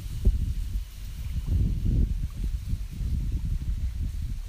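Low, rumbling wind buffets the microphone while water laps and sloshes in an uneven rhythm at Lake Shikaribetsu, Japan, a steady outdoor wash with no voices.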